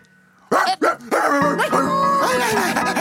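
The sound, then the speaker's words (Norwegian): A dog in a classroom barks three quick, sharp times, then carries on in a run of higher, whiny yelps and whimpers that fill the rest of the moment. “Hvem er det som har tatt med bikkje inn her, da?”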